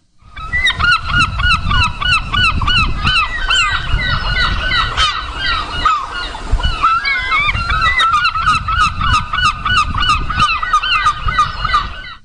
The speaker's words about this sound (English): Here comes seagulls.